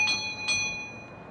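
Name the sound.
doorbell ringing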